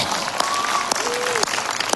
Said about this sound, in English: And so um, if you get a chance, can we give her a round of applause? Yeah!